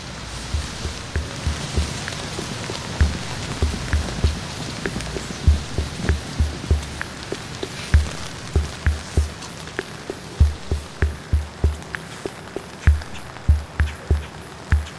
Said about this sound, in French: la pluie